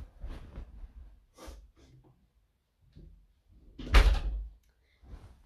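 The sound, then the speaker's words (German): A door is pushed shut with a solid thump, preceded by a few soft shuffling and handling noises and followed by quiet movement; no one speaks. “ich muss kurz noch eine Tür zumachen.”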